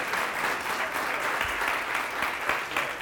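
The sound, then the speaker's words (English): A church crowd claps steadily for a couple of graduates, a dense wash of many hands applauding at an even, sustained level for a few seconds with no voices standing out. “Just give me another hand clap.”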